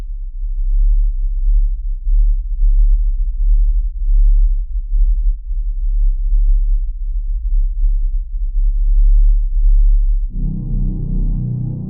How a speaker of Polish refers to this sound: A to już buczenie wyizolowane komputerowo z reszty nagrania. Jedynie niskie częstotliwości. Uwaga, waszym uszom może się to nie spodobać.